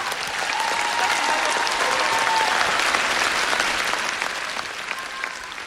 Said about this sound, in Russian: Ваши аплодисменты, друзья.